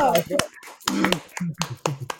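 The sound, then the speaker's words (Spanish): A handful of sharp hand claps land in an uneven rhythm, fairly loud, while people keep talking over them. “Un aplauso para.”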